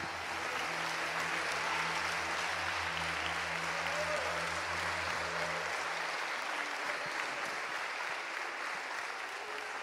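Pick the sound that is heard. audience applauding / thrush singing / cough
audience applauding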